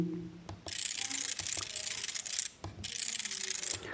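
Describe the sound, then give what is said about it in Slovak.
Pins of an Orbit braille display refresh rapidly as a line is scrolled faster, a dense, continuous mechanical chatter, fairly loud, with a brief pause near the middle before the buzzing clatter resumes. No one speaks. “No a teraz skúsime scrollovať týmto riadkom rýchlejšie trošku.”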